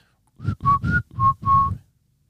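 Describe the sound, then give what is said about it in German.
A father whistles a short family signal call: four or five quick, clear notes in a brief rhythmic phrase, fairly loud, with no talking. “Also wenn der Papa so gepfiffen hat”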